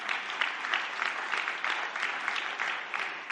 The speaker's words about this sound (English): A smattering of applause for you.